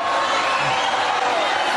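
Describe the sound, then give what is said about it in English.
A dense, continuous roar of a rally crowd yelling, loud, with many overlapping voices merging into a steady wall of shouting. “Because the crowd, I think, is yelling at the veteran.”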